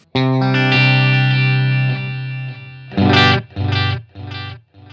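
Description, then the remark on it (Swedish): An electric guitar holds a sustained, slightly wavering note through a delay pedal with its Wonk control turned up to about 3 o'clock, then a few rhythmic repeats echo back with a wobbly, warbling quality and gradually fade out. No one speaks. “Man hör hur det svajar till.”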